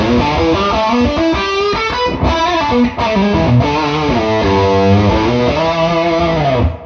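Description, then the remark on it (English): Electric guitar plays a run of gritty, sizzling power chords through an amp-style pedal with its drive switched off. The chords are loud and sustained, shifting every second or so, with no voices. “Yeah, that's power chords and stuff. it's got the sizzle. Dude, that's with the drive off.”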